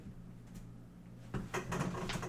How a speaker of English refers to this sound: Kyle moved chairs